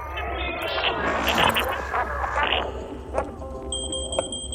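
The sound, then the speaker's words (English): A smoke alarm, set off by steam from soup, beeps with shrill, high-pitched electronic tones, sounding in short repeated bursts over a busy, cluttered background of indoor noise and commotion. “It was just these smoke alarms. They're so sensitive. Just the steam from my soup set it off.”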